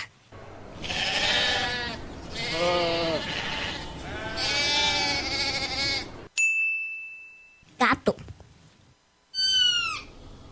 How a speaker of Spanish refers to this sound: Oveja.